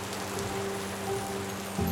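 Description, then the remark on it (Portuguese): Heavy rain pours down in a steady, dense hiss that stays at an even loudness throughout, with a faint low hum underneath and no voices. “uma chuva muito forte caiu sobre os morangos da dona Juju”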